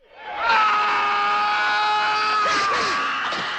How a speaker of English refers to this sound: Everyone thinks the fight is over until we get another guttural scream